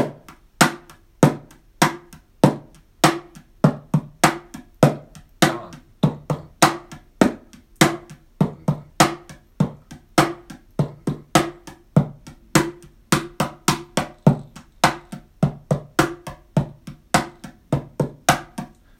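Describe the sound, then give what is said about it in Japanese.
A mini cajon is played by hand in a steady, driving groove that mimics a drum kit, alternating deep bass-drum-like thumps from hitting the middle with sharp, bright snare-like slaps from hitting near the edge, clear with no talking over it. “ミニカホンを叩いてみた”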